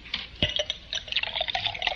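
Whiskey is poured into a glass, a steady gurgling splash with a faint clink at the start, running for a couple of seconds with no voices.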